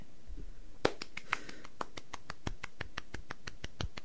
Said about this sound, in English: You're supposed to talk while I'm clapping